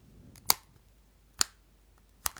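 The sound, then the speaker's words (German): Three crisp camera shutter clicks, evenly spaced about a second apart, sharp against a quiet background, with no voices. “Hinten die Kamera.”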